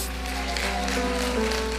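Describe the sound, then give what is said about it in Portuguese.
An audience claps steadily in a dense, continuous patter of applause that holds at an even loudness throughout, with faint sustained musical tones underneath. “Podemos dar uma salva de palmas.”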